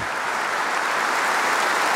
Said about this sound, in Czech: Následuje potlesk 800 hostů ve Vladislavském sále Pražského hradu.